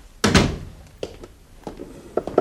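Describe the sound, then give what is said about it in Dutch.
A door is shut behind someone entering, swinging closed with one loud thud, followed by a few softer clicks and knocks as it settles, with no voices. “Doe die deur achter je dicht.”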